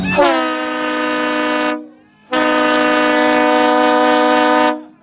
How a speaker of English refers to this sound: so we better blow that train horn.